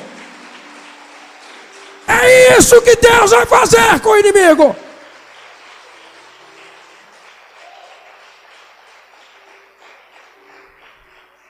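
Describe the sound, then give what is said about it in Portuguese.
A church audience breaks into a loud burst of applause for the Lord, mixed with shouts and cheers, for a couple of seconds during a sermon. Then it stops abruptly and a man resumes speaking. “Pode aplaudir o Senhor.”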